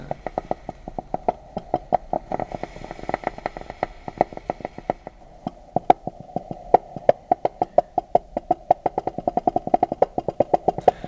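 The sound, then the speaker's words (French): Wooden branches knock and scrape against a boat hull in a fast, irregular string of sharp creaks and taps over a steady low droning hum, with no voices. “les branches de bois qui frotte contre la cale, des glaçons sur la scène”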